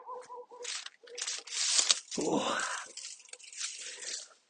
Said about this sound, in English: There we go. That was more like it. The dull thud of a ditch full of stones hidden by vegetation.